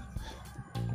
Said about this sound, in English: You hear the roosters crow, get up, get up. It's a wonderful Sunday.